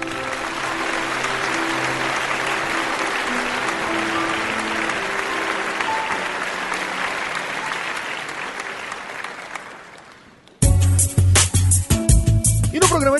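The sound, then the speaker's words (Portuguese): Sustained applause given as a farewell tribute to a late friend, many hands in a dense, steady clatter for about ten seconds that thins out, then cuts abruptly to loud rhythmic music. “em nome de toda a equipe do Alotênica, ainda que virtuais, os nossos sinceros aplausos, meu amigo.”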